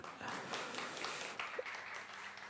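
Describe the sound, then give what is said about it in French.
A crowd applauds a team steadily, a dense wash of many hands clapping at an even, fairly loud level for a couple of seconds. “On les applaudir.”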